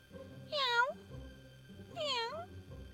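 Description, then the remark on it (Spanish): Two high, gentle kitten meows, each under half a second, about a second and a half apart, fairly soft, with faint background hum between them. “Andando y andando, se encontró con un gatito, que le saludó con un leve maullido.”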